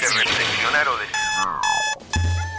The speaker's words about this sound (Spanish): Sí, sonó el despertador.